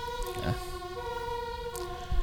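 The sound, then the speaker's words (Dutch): A steady, droning ambulance siren holds a sustained tone for a couple of seconds at moderate volume, with faint background noise and no one speaking. “Metaforisch rijdt de ambulance achter ons langs.”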